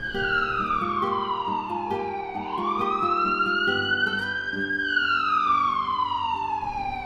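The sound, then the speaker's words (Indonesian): An ambulance siren wails loudly, its strong tone sliding slowly down, sweeping back up, then falling again in a long continuous cycle, with a low rumble beneath and no voices. “Waktu keluar dari kegelapan itu, yang kusadari bahwa aku sedang melihat dari sebuah ambulans”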